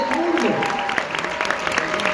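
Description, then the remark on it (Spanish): A crowd breaks into steady, dense applause for all the 'diamonds' of Mexico, holding at a fairly loud level throughout, with a voice faintly audible beneath the clapping. “Denle un fuerte aplauso a todos los diamantes de México, ¿sabes?”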